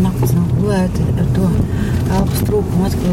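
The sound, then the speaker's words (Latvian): Steady low road and engine rumble from inside a moving car, driven from a doctor's office toward the nearby Mežotne Palace park, continuous throughout, with a person talking over it. “atbraukusi uz doktorātu ar mašīnu, tāpēc sēžamies tajā.”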